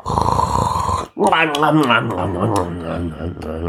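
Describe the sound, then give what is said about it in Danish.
A voice mimics a monster's snore: a deep, rasping, rumbling breath for about a second, a brief pause, then a long, wavering, growly snore drawn out. “Kajan rakte sin hånd længere og længere frem, og monsteret snorkede videre.”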